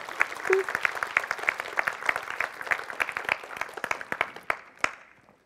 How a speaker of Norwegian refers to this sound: Kan ikke dere reise dere, så klapper vi for dem? Nytt, nytt ektepar!